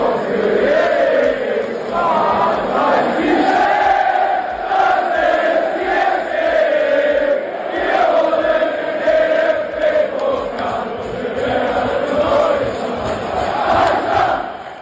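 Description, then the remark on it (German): A crowd of football fans chants loudly and continuously in the echoing catacombs of the Neckarstadion in Stuttgart, Germany, voices swelling together in a steady rhythmic roar for about fifteen seconds. “Und wir hören noch einmal kurz rein, wie es schallte in den Katakomben, ich sage ja immer noch, des Stuttgarter Neckarstadions.”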